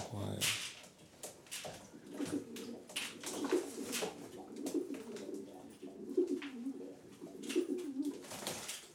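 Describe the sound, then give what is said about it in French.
Long-distance racing pigeons coo repeatedly in a loft, their low rolling calls overlapping in a steady rhythm, with soft rustling and scattered high clicks around them. “Donc elle s'occupe des pigeonneaux, euh, vitesse, et moi je m'occupe des pigeons de grand fond, les marathons.”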